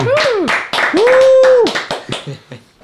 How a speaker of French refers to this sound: c'est vos applaudissements.